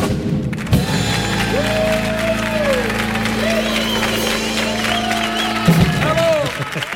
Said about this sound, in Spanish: Gracias, gracias por estos aplausos tan merecidos.